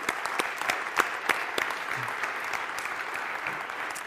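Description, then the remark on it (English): An audience applauds God steadily, many hands clapping in a dense, continuous patter with a few sharper claps standing out, sustained at an even level throughout. “I think when we get in the habit of applauding God for the efforts that He's giving to us”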